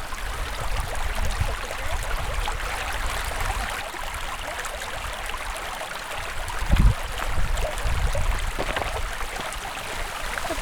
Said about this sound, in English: Way up high on the top of the cliff. A small cascade. A small cascade of water that's just finding an uneven route down the cliff face and ending up right here in a little pretty, pristine, clean stream.